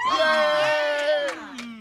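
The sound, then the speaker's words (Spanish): A woman lets out a long, loud, high-pitched scream of delight, sustained for nearly two seconds with a wavering pitch and a slight drop at the end, heard alone. “gritando de la alegría.”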